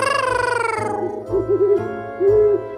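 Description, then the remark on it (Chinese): An owl hoots: a long, gliding tone sinks in pitch, followed by a quick run of three soft, low hoots and one longer, steadier hoot. No one speaks. “白猫绅士交代猫头鹰送信的行程。”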